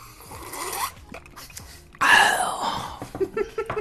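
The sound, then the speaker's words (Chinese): Glasses clink together once in a toast during a show recording, a sharp bright chime with a brief ringing tail, surrounded by soft rustling and handling noises; no one speaks. “来吧，虽然你今天说录完之后要运动，我们先碰一下吧，这是我们的传统，一定要把碰杯的环节放到节目当中。”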